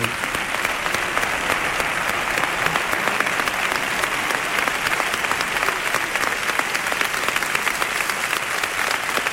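Sustained applause from a large audience for the speaker of an upcoming pregón, a dense, steady wash of many hands clapping at once, loud and even for the whole stretch with no voices standing out.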